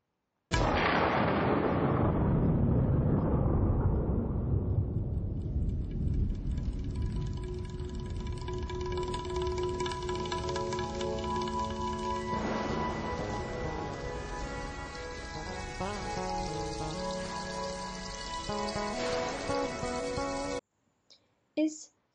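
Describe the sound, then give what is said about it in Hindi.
Quick, pattering tabla strokes mimic falling raindrops in a song about rain, dense and loud at the start, then continuing steadily beneath sustained melodic music for the rest of the piece. “आप सबको बारिश के बूंदों की गिरने की आवाज़ सुनाई देती है ये आवाज़ तबले से निकाली गई है”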